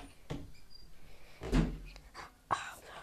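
door being opened

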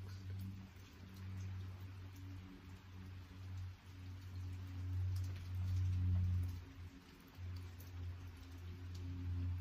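rain falling

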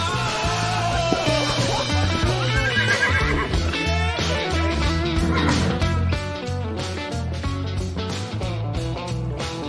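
horse neighing

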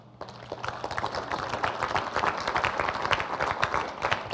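audience applauding

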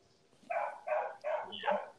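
puppy barking

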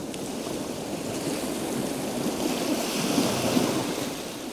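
sea waves washing ashore

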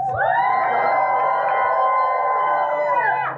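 audience screaming and shouting

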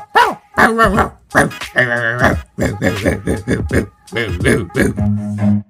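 dog barking

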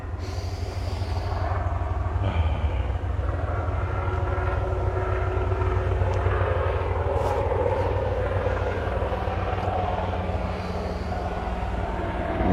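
helicopter flying overhead

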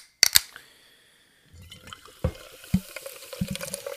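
fizzing sparkling water

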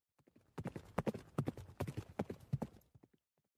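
horse hooves clip-clopping

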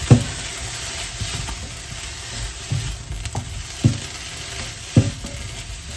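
food frying

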